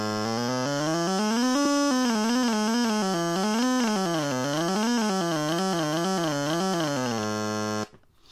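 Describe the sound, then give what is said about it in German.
A buzzy, retro synthesizer tone, played by moving a stylus, glides continuously up and down in pitch, wavering and sliding between notes for several seconds before cutting off abruptly, with no voices over it. “Das ist wie der Synthesizer damals ähm, auch klang ist eigentlich im Prinzip, als wenn wir aus einer alten Atari-Konsole das Ding ausgebaut hätten, hier rein, vernünftigen Lautsprecher da dran”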